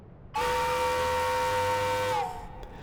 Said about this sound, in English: In an attempt to summon the keepers, Captain Harvey of the Hesperus sounded the ship's whistle.